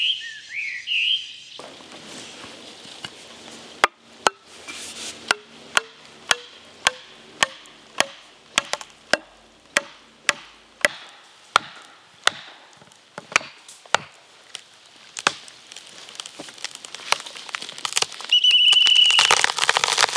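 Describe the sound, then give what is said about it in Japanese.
Axe blows chopping into a tree trunk as a tree is felled deep in the mountains, about twenty sharp, hollow thwacks in a steady rhythm, with birds chirping around them, then a swelling rush of noise at the end. “今朝は奥深い山で木を倒す豪快な音色それではお聴きください”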